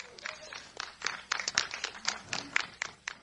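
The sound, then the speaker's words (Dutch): A small audience claps with a soft, uneven patter of sharp hand claps that carries on steadily for a few seconds, fairly quiet, with no voices. “Yes, applaus mensen.”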